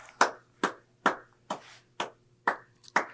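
Seven or so sharp hand claps at a steady, moderate pace, each bright and snappy with a quick decay, over a low background hum; no one speaks.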